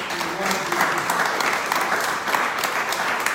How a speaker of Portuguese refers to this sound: Amém, querido? Dá uma salva de palmas a Deus.